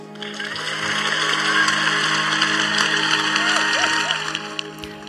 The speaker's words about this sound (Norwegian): Og nå kunne Sashin se hvordan hele salen reiste seg og klappa og jubla